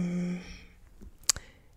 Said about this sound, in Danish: nu sidder jeg her og ruder i min telefon, mens vi taler.